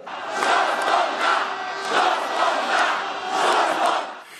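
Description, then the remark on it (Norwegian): A large crowd of protesters chants in unison, voices rising and falling in a steady repeated rhythm, loud and dense throughout, with no single speaker standing out. They are marching in western Romania and Transylvania in solidarity with Romanians abroad who could not vote in the presidential election. “I Vest-Romania og i Transilvania marsjerte flere hundre tusen i solidaritet med de som ikke fikk avlegge stemme.”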